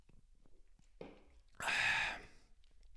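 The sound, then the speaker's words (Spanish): A sip from a drink, followed by a loud, breathy exhale of satisfaction lasting about half a second, then quiet. “Voy a darle un, traguito a mi Firate.”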